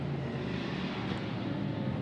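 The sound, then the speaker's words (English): The engine of the Car Collection team's Porsche race car, driven by Dustin Blattner, roars steadily from an onboard position, a loud, continuous droning hum with dense wind and road noise and no talking. “We're on board, aren't we, with the car collection car at the moment, which uh, is currently being driven by Dustin Blattner.”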